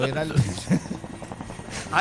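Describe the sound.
A voice imitates a helicopter's rotor, making a rhythmic chopping sound with steady pulses for a couple of seconds, with voiced tones running through it.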